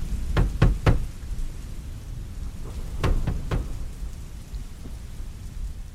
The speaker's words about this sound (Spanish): Los dos amigos que pertenecen a la alta sociedad sevillana Bajan del carruaje y tras caminar unos metros llegan a una amplia puerta que permanece cerrada. ¿Y ahora? Ahora es cuando llamamos a la puerta.